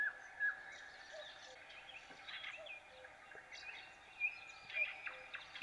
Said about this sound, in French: tu reconnais des animaux Ouais, ouais, genre euh, les trucs qui font du bruit, il y, a un coucou.